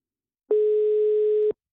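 A single steady telephone ringing tone sounds for about a second on an outgoing call on phone line 1 to a local woman, a clear mid-pitched beep heard alone with no voices.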